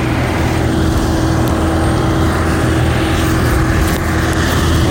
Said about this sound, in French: En fait, les avions avec les hélices, les amis. Il est tout petit. il est tout petit, va faire peur. Hein. L'avion avec les hélices.